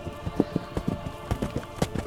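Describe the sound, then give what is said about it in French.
Horse hoofbeats, heard from the woods, clop in a steady, uneven rhythm, a dozen or so sharp knocks over two seconds against a low rumbling background, with no one talking. “Quand soudainement, alors que vous avanciez paisiblement, à l'allure que vous avez, vous avez conseillé, vous entendez, de par les, les bois, des hurlements, stridents et terrifiants, ainsi que des bruits de sabots.”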